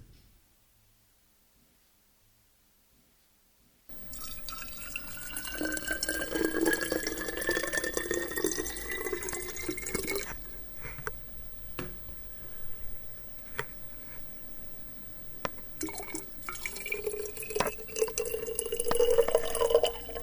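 After a few seconds of silence, a tap runs steadily as someone gets some water, water splashing and dripping into a sink, with a rising tone as a container fills. No one speaks.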